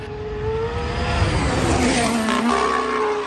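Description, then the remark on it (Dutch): A voice imitates a braking truck downshifting, a loud, sustained rumbling growl with shifting tonal whines that dip and rise over about three seconds. “en dus af en toe, ja, ik, het, ik, kan het niet goed omschrijven, maar het, het, het, het, het, klinkt een beetje als een vrachtwagen die terugschakelt.”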